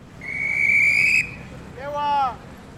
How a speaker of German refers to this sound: Ein Polizist regelt mit seiner Trillerpfeife den regen Verkehr.